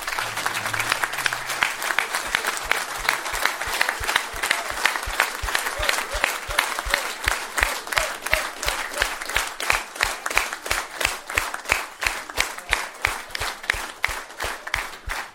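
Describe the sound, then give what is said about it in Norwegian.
A crowd stands and breaks into loud, sustained applause for the Holberg staff and volunteers, which gradually settles into steady, rhythmic clapping in unison, continuing strongly to the end. “Og gi dem en applaus da, samtidig. da En kjempeapplaus.”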